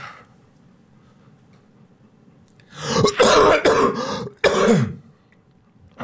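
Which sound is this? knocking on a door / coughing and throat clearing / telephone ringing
coughing and throat clearing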